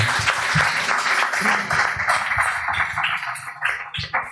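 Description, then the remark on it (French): An audience applauds a mural artist, clapping steadily throughout, a dense wash of many hands with a few whoops rising near the end, moderately loud. “Les amis, je vous demande s'il vous plaît une pluie d'applaudissements”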